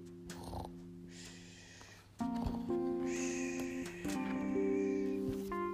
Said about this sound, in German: Unter dem Bett schlief ein Mäuschen und schnarchte leise.